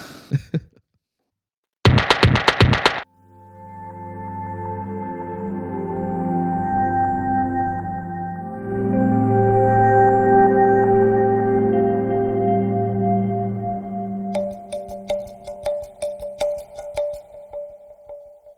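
Calm ambient music of sustained, layered tones plays steadily in a train's relaxation carriage on the route between Bremen and Norddeich, swelling slightly midway, with a brief noisy burst early on and quick rhythmic clicking toward the end.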